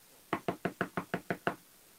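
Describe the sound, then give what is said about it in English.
A rapid series of eight firm knocks on a door, evenly spaced, with no voices, followed by quiet. “oh no, oh no, oh no, who's at my door this time?”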